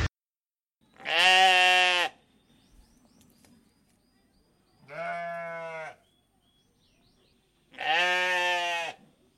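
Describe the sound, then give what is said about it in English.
Three loud bleats, like a sheep or goat, each about a second long and spaced a few seconds apart, with faint bird chirps and quiet farmyard ambience in between. “So let's return to the farm sounds previously in progress.”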